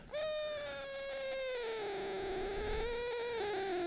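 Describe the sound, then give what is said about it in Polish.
A cat, brought to the microphone during a live broadcast, lets out one long, drawn-out yowl, the tone holding steady and sagging slightly in pitch over nearly four seconds, with no one talking. “poszedłem, żeby kota przyniosłem, bo na, jak nadaje na żywo, to kot się wścieka.”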